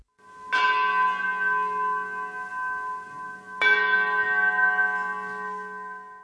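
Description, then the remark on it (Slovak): An old metal shell casing is struck twice with a wooden hammer at a Christmas concert, about three seconds apart. Each strike rings out like a bell, with a bright metallic clang and a long, sustained hum. “Keď sa na ňu udrie drveným kladivom, tak vydáva naozaj zvuk ponášajúci sa na zvuk zvonu.”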